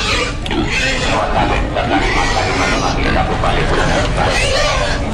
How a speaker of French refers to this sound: Et euh, là, au milieu de la route, il y a six cochons entravés.